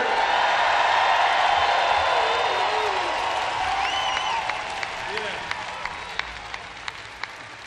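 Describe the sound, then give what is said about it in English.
A large festival crowd at the City Limits Festival roars with dense, sustained applause and cheering for the show's crew, with whistles and shouts rising above it; the ovation gradually thins out into scattered, distinct claps near the end. “So let's hear it for the best crew on the planet!”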